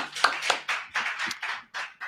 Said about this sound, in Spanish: Un aplauso, aplausos.